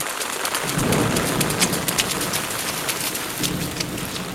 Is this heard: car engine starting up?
no